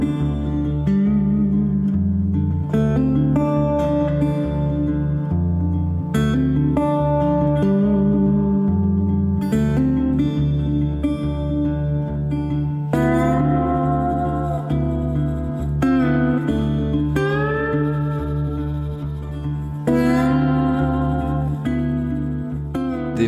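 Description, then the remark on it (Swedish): Western-style guitar music plays steadily, with a bouncing bass line under twangy melodic phrases that rise and fall, moderately loud and continuous throughout, with no one talking. “som spelar bra västern till exempel Ghost of the Mountain”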